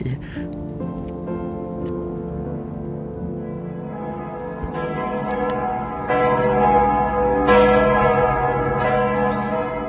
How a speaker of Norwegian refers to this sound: Kyrklockorna ringde i 15 minuter efter klockan åtta i morse.